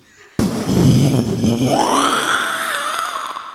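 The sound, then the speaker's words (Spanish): A voice imitates a loud thunderclap: an abrupt blast of rough, rumbling breath and growl that holds for about three seconds, rising into a strained tone before trailing off. “Si oye un fuerte trueno, haga un fuerte trueno, por favor.”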